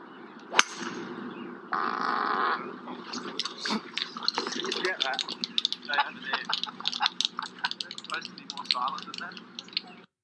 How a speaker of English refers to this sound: Some flatulence, yeah, Ian Poulter. He was, uh, yeah, it wasn't this week's tournament. It was the one last week. Yeah, after his playing partner had teed off.